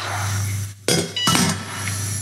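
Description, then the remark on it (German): A metal lid is set onto a cooking pot of food being only warmed, not boiled, on a stove, giving two sharp clanks about a third of a second apart over a steady low hum, with no talking. “Nur erwärmen, Deckel drauf.”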